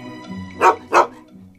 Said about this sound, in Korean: 그런데 갑자기 나나가 창문을 향해 컹컹 짖었어요.